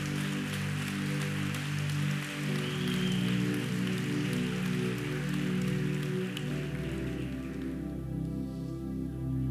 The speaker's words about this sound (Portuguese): Se você pode, aplaude a Ele com toda a tua força.